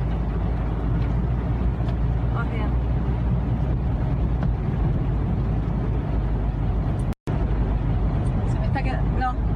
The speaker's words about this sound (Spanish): se me está quedando el auto.